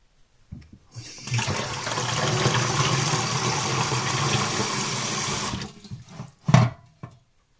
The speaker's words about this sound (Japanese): 今からあの洗面器に水を洗面器に水を張るんであの手を叩く代わりにこの洗面器に張った水をこうピチャピチャとしてそれを拍手代わりにしてちょっとさせてもらいます